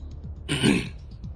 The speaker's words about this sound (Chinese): 总统等大家落座之后，环顾了一下落座的官员，清了清嗓子，说道：